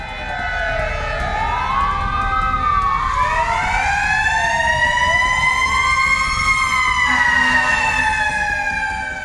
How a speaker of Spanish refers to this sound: bomberos aplaudieron a funcionarios del lugar, haciendo sonar además las bocinas de sus vehículos y lanzaron chorros de agua al aire con sus mangueras.